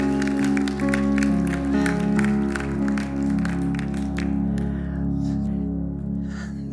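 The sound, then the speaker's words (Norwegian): An audience applauds for a job done after a Christmas Nativity reading, with a dense patter of many hands clapping, strong at first and thinning out toward the end, while a steady low tone sustains underneath. “Så ikke ta gi de her en eh, applaus for en jobb.”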